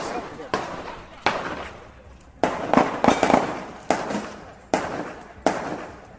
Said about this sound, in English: It sounds like gunshots. I'll let you know what this is. These seem to be gunshots.